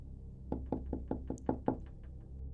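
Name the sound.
knocking on a door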